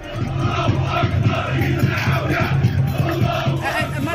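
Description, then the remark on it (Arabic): A large crowd of Algeria's Hirak protest movement chants the slogan "Yetnahaw ga3" loudly in unison, rhythmic repeated bursts of many voices filling the whole stretch over a dense roar of the gathering. “بدليل أنه الشعار الذي كان يقول باللهجة الجزائرية يتنحى وقع كان هو الشعار الذي اكتسح في ذلك الوقت أجواء الحراك”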